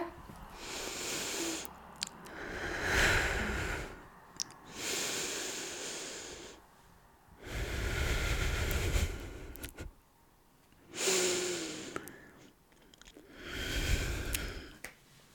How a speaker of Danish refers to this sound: Så prøv bare at lukke øjnene, og så tag sådan øh, tre gode, øh, dybe vejrtrækninger.